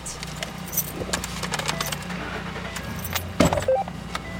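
Keys jingle and clink over a steady, low vehicle engine rumble, followed near the end by a sharp clunk, as a Cass County Sheriff's Department captain gets into his running truck to drive towards sites where protesters and police have clashed.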